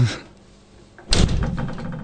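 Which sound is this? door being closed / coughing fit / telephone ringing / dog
door being closed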